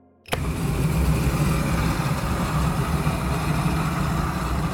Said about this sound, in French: Comme cette torche brûle à 3000 ou 4000 degrés, elle peut couper sans difficulté une plaque d'acier. Visuellement, ça marche, mais c'est sur le bruit que le bas blesse. On est plus proche du chalumeau que du sabre laser.